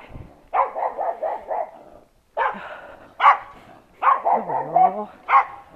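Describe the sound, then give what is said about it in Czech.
A small dog barks repeatedly in quick, high-pitched bursts, with short pauses between volleys and a brief whimpering slide near the end, loud. “Malý blondětí umetlo. To hodně vyskakuje a hodně štěká.”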